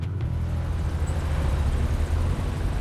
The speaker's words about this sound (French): Mais le grondement d'un moteur retentit soudain au loin. Une camionnette perdue au milieu de l'immensité elle roule vite et soulève un nuage de sable et de poussière sur son passage, avant de s'arrêter.